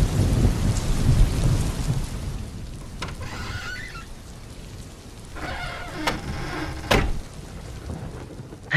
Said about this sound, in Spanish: Está lloviendo.